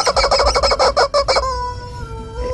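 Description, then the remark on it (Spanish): A rooster crows up close and loud: a quick run of stuttering, choppy notes that breaks into one long, drawn-out call sliding slightly downward, with no voices over it. “Gallo por Colombia.”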